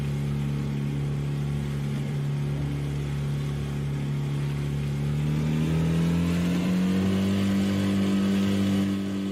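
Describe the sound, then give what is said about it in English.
A steady, droning boat motor engine runs continuously, its pitch climbing partway through as it revs higher, then holding at the raised tone. No one speaks. “Like the boat's still going, it's still rocking.”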